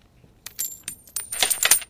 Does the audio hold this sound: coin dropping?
yes